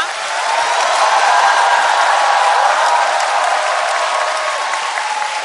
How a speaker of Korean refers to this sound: 제 평생 처음 받아보는 놀라운 박수입니다. 고맙습니다.